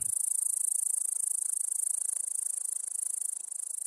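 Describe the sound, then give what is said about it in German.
A great green bush-cricket stridulates in a continuous, high-pitched buzzing trill with a rapid pulsing rhythm, steady throughout, with no voices or other sounds. “es gibt auch äh, einige Insekten in diesem äh, Tierstimmenarchiv, wie zum Beispiel das Zwitscherheupferd. Ja, es ist tatsächlich kein Pferd, sondern ein Insekt, nämlich eine Heuschrecke.”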